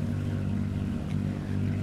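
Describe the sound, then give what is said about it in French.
A sailboat's engine hums steadily on a calm, windless sea after leaving a bay, a low continuous drone with a constant pitch and level throughout, with no voices. “Encore une fois, nous allons voguer avec le ronronnement du moteur.”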